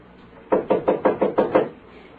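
A police officer knocks on a door: about seven quick, firm raps in a steady, even rhythm, dull and fairly loud, followed by quiet. No one speaks.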